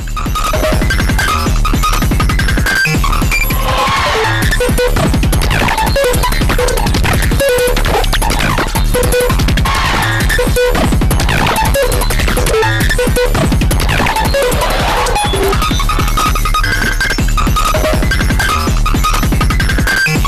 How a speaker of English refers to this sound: Oh, and I believe this whole album, the only percussion besides these wind chimes and little little pecking kind of glitch sounds, are, is a kick drum.